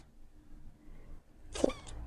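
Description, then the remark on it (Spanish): A tortoiseshell cat lets out one short, playful meow, a quick chirpy trill that rises near the end, moderately loud. “Y maulló que hace como un ruido de juego, no sé.”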